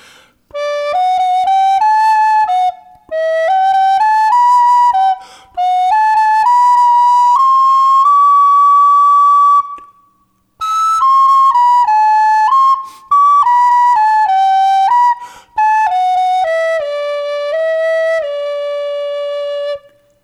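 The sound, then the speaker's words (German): A recorder plays a bright, steady melody in D major, a key with two sharps (F sharp and C sharp), played somewhat quickly. It moves through phrased runs of clear notes with a few long held tones and short pauses between phrases. “Das ist eine Tonart mit Fis und Cis, mit zwei Kreuzen und das klingt auf der Blockflöte dann so.”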